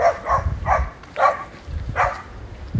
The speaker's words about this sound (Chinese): 这个狗怎么这么兴奋？